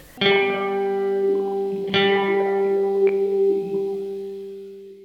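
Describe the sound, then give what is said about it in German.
A jingle taken from a guitar solo in a song: a sustained electric guitar tone played through a bubbling guitar effect warbles with heavy modulation and echo. New notes are struck around one, two and three seconds in, ringing out alone before slowly fading. “Und zwar habe ich da viel mit einem Gitarreneffekt eingespielt, der so ein bisschen rumblubbert.”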